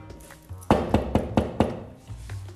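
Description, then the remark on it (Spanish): A quick series of about five firm knocks on a door at around 6 in the morning, evenly spaced, with a faint low hum before and after. “Entonces, al día siguiente, como a las 6 de la mañana, pues no creen que tocan la puerta.”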